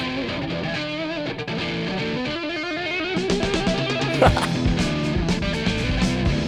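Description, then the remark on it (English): A funk rock song plays loudly with a driving groove, distorted guitar, punchy bass and steady drums, growing busier and brighter partway through; nobody talks over it. “Super funk.”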